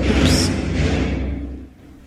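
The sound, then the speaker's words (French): A municipal agent's truck arrives at a cemetery, its heavy engine rumbling with a brief hissing whoosh early on, then the low drone gradually fades as it moves along; no one speaks. “C'est le bruit du camion.”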